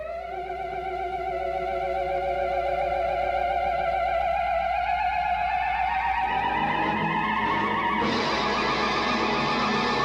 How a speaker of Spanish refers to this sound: Con el theremin se obtenían sonidos muy especiales, algunos hasta escalofriantes.